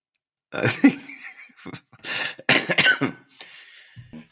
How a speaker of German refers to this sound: Da muss ich hier so eine Warnung, Triggerwarnung. Rülpsgeräusche.